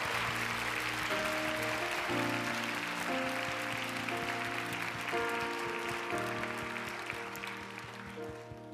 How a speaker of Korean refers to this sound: 우리 하나님께 한 번 더 감사와 영광의 박수 올려드릴까요?